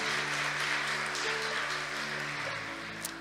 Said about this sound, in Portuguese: Aplauda ao Senhor. Glória a Deus.